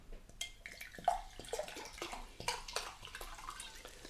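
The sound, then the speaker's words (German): Water is poured into a glass for a few seconds, a bright, splashy trickle with small gurgles and drips, steady with a few louder bursts, and no talking. “Und deswegen gibt es für mich heute tatsächlich Wasser.”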